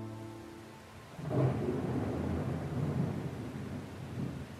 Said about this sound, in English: It's a rainy night.